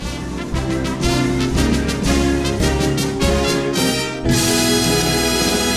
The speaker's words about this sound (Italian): e allora, senza dilungarci tanto, andiamo con la sigla.